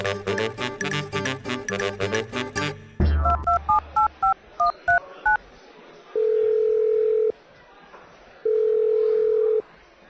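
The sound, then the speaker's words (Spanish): After a brief musical opening, a rapid run of about eight telephone keypad beeps sounds as a number is dialed, followed by two long, steady phone tones separated by a pause of silence; the call goes unanswered. “¿Y por qué no me contestan? Ay, cómo me molesta que no me contesten. ¿Para qué andan teléfonos si no van a contestar, hombre?”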